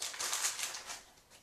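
An entire sheet of paper is crumpled in a quick run of crisp, crackling rustles lasting about a second and a half, fairly soft, easing off toward the end with no voices.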